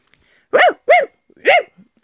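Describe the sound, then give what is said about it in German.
Three loud, sharp barks from a small dog inside a handbag, the first two in quick succession and the third after a short pause. “Platzt plötzlich lautes Hundegebell dazwischen.”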